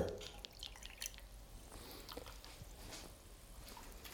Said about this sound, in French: Vous voyez ce que ça fait Ça fait des bulles. C'est le gaz carbonique qui s'évapore. Parce que le, calcaire, c'est un mélange de calcium et de gaz carbonique.